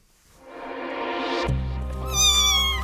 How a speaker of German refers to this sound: Das ist ähm, europäische Wildkatze, die war in einen Kamin gestürzt und kam dadurch ziemlich verrußt an, weil die Leute sie dann laut schreiend da gefunden hatten, natürlich ohne Mutter.